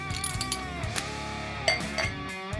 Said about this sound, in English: All right, let's open beers. All right, here we go. Lots of bottles. Bottle day today.